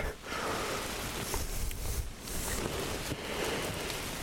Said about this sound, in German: Scheiß Regen, geh weg.